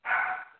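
A single short dog bark or yelp, clear, tailing off quickly before another sound begins at the very end; no talking.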